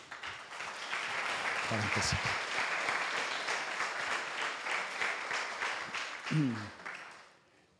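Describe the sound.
A crowd breaks into sustained applause for God, a dense wash of many hands clapping at steady loudness for several seconds, with brief voices rising through it before it tapers off.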